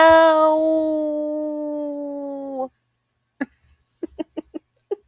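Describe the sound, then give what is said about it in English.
A voice imitates a wolf howl: one long, loud, sustained note sliding slightly downward for a few seconds, then a pause followed by a quick series of short yips. “Your wolf.”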